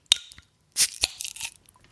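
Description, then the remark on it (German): A bottle of Delirium Red Strong Fruit Beer from the Huye brewery, with an aluminium label around its neck, is cracked open: a couple of small metallic clicks, then a loud sharp pop with a brief hiss and a few faint clinks trailing after. No one speaks. “Ah, das knackt immer so schön. Knall.”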